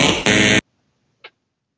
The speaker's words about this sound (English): put in the sound the, the sound clip from Family Fortunes in again? What now? Yes, now.